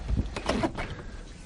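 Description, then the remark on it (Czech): A door is being closed, with a short run of scraping, rattling movement and a couple of soft knocks over about a second and a half, with no talking. “Já si zavřu ty dveře, protože tam slyším...”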